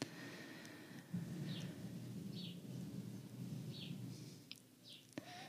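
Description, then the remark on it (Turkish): A deep, steady roar of hot air balloons passing overhead swells in and holds for several seconds before fading, with faint bird chirps scattered above it outdoors. “Şu anda üzerimden balonlar uçuyor. Belki sesini duyuyorsunuzdur balonların, geçen balonların.”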